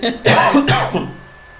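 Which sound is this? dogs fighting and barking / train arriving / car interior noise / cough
cough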